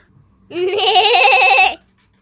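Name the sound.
goat bleating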